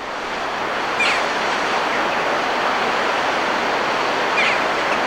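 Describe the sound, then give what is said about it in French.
A steady, broad roar of surf rushes continuously, with slight swells in loudness near the start and end as waves break against cliffs in the Basque Country. No voices are heard. “À entendre les vagues qui s'échouent contre les falaises”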